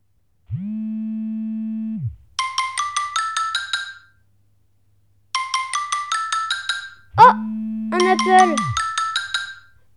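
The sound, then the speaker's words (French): A mobile phone rings with a bright, rapid electronic melody played twice in quick bursts, mixed with a low steady electronic hum and a sharp click near the end as the green answer button is pressed. “Je clique, bouton vert. Allô Allô, allô Ici Diego.”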